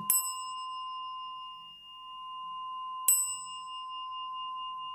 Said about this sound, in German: Und dann nimmt man die Stabglocke und läutet die Meditation ein.